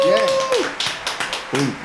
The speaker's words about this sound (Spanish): Un aplauso, por favor.